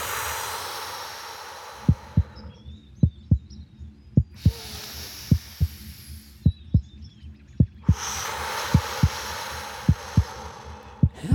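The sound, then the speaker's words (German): Steady heartbeat heard through a stethoscope placed on a person's bare chest as they breathe deeply in and out, with soft repeated thumps in a regular rhythm, muffled, while bursts of breathing-like hiss rise and fall in the background. “Wow, ist das mein Herzschlag? Ganz genau.”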